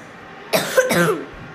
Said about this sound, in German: Entschuldigung Leute, ich habe ein bisschen trockenen Husten.